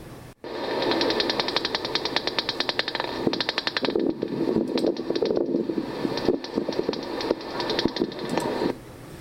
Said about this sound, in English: have to turn the mic way up in order to pick up this sound, but it's the echolocation signal of the Indiana bat.